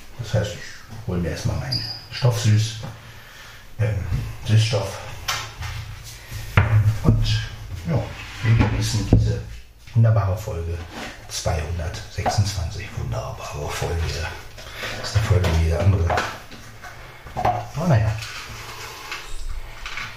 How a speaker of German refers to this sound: Das ist nur die Schranktür.